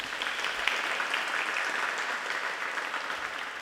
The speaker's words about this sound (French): Et maintenant, un tonnerre d'applaudissements pour le jeu des 10 questions.